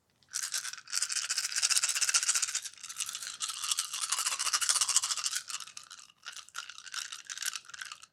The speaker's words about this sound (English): you're rolling a lot of dice